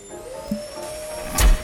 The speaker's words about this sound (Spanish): Hasta que tu vieja prende la aspiradora.